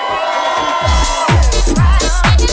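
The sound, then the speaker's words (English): At the Rinse Affair party, a loud crowd cheers, shouts and whoops continuously, while a series of deep, booming thuds lands roughly every half second beneath the noise. “After three, let's make some noise. One, two, three.”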